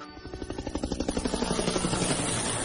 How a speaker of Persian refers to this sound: آخه پرواز با هلیکوپتر